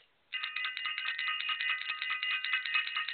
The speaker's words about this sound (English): I want to ring the bell for self invested.